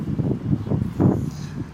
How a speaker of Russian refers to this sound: Так, ветер, прошу отнестись с пониманием.